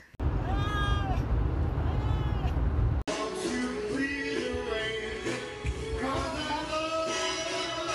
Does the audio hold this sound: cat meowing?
yes